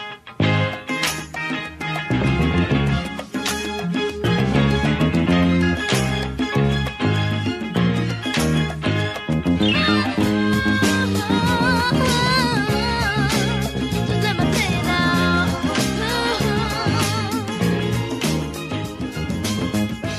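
An upbeat pop-soul song plays loud and continuous, with a bright lead vocal over a steady, punchy drum beat, bass and layered harmonies, and no talking over it.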